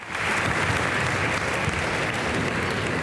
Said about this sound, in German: Ich bitte die Personen auf der Tribüne auf den Applaus zu verzichten. Äh, es ist nicht üblich, dass man äh, das mit einem Applaus kommentiert und wir sind im Zeitrahmen sehr knapp dran.